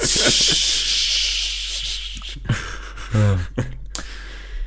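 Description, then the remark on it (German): A voice imitates a long, breathy hiss like the steam released when a steam bath at a thermal spa is opened, loud, fading out after about two seconds, followed by a few short vocal sounds and a brief laugh-like burst. “Oh muss mir das vorstellen, wie so ein, weiß ich nicht, wie in der Therme, wenn du so ein Dampfbad aufmachst.”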